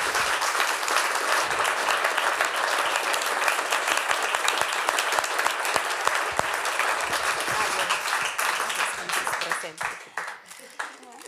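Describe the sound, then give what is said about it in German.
An audience applauds steadily at an evening event at the Kellertheater, a dense wash of many hands clapping at a strong, even level for about nine seconds before thinning out into scattered claps that fade away. “dürfen nochmal klatschen.”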